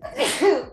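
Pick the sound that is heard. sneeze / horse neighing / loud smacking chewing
sneeze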